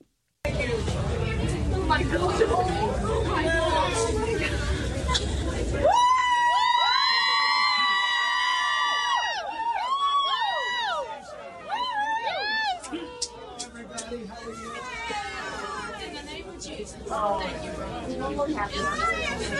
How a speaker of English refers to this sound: Actually, when we see Trump praying, and we see Trump uh, with the MAGA crowds again. It's good.